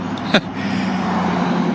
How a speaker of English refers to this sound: I love the cars. You can hear the cars going by